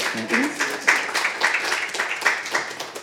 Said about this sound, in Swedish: Genom en eh, varm applåd.